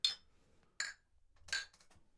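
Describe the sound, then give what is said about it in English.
Glasses clink together in a toast: three bright, quick chimes spaced about a second apart, fairly soft, with no talking. “Cheers, Cheers gentlemen.”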